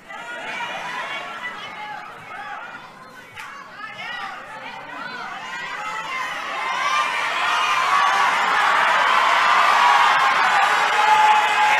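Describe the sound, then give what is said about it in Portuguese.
A large audience shouts and cheers, the crowd noise building steadily into a loud, sustained roar of overlapping voices and whoops that fills the whole space. “Os que gritam, estão aqui também, estão aqui.”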